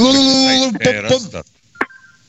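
Electronic telephone tones: a steady buzzy tone, then a quick run of shifting tones, followed by a sharp click and a faint, thin high beep trailing off.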